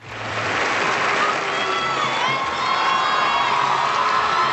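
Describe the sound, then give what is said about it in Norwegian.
A large audience boos loudly and continuously as someone accepts an award on stage, a dense roar of many voices with scattered shouts and whoops mixed in, filling the whole stretch without a break. “Ja, det bues”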